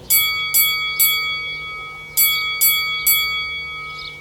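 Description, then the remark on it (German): A bright metallic bell rings in two quick bursts of three strikes each, with a clear ringing tone that sustains between hits. It is fairly loud, with no voices. “Ey, du hast keine Ahnung, wie oft mich das aus dem Schlaf geklingelt hat, ne?”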